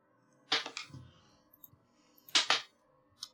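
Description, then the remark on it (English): Dice rattle and clatter in two quick bursts about two seconds apart, each a crisp cluster of sharp clicks, with a few faint ticks between and after. No one speaks. “Roll that dice.”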